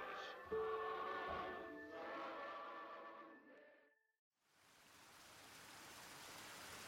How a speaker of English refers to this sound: Lying on her side atop a yellow blanket, Carol watches the steady stream of the creek, the soothing nature of gentle movement.